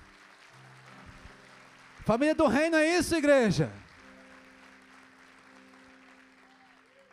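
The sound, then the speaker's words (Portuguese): An audience applauds Jesus steadily throughout, a dense wash of clapping, while a man's voice shouts loudly over it for a couple of seconds in the middle before the clapping carries on alone. “Vamos aplaudir a Jesus?”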